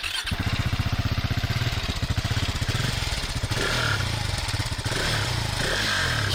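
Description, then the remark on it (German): A modern single-cylinder motorcycle engine runs with a distinct, evenly spaced thump, idling steadily and then smoothing slightly as the revs rise a little. No voices. “Also man hört auf jeden Fall, äh, wir hatten es ja angesprochen, man hört es auf jeden Fall, dass es ein mhm. Einzylinder ist. Man hört auch, dass es ein moderner Einzylinder ist, ja.”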